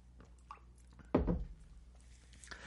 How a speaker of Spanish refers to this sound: Primero me tomo un traguito de té.